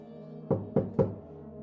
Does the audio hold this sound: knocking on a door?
yes